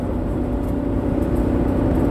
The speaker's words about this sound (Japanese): まあなんか僕があんまり喋らなければもしやこれはエンジン音を楽しむポッドキャストとして成り立つんじゃないかなって思ったんですよ